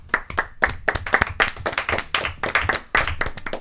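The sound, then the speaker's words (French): A burst of applause for the first edition of the L3L Awards: many hands clapping in a dense, steady patter of sharp, bright claps that continues loudly and evenly throughout, with no voices. “bonjour à tous, c'est la première édition des L3L Awards et je pense que ça peut s'applaudir.”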